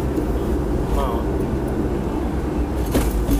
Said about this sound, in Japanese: 今私は、え日曜日、え仕事から帰ってくる車の中で車内録音でございますなので雑音等々あるかと思いますがまあ